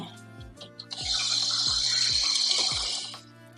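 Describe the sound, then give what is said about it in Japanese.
A kitchen tap gushes steadily for about two seconds while dishes are being washed, with a few soft, dull knocks of dishes being handled sounding through the running water. “食器洗うね。”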